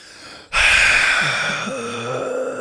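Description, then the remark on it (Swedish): A person imitates a man sitting in a car who leans his head back and takes a huge, exaggerated deep inhale: one sudden, loud, rasping gasp that starts abruptly and stretches on for about two seconds, with a throaty voiced rumble creeping in near the end. “Han hoppar in i bilen, öppnar bildörren, så när han hoppar in, han sätter sig i bilen, lutar bak huvudet med det största andetaget du kan tänka dig en mänsklig varelse kan göra”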